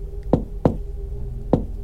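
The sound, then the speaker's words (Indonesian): Three solid knocks on the wooden front door of a house, two close together and then one more after a short pause, with a low, hollow thud to each blow and no voices. “Akhirnya kami mengetuk pintu rumah itu.”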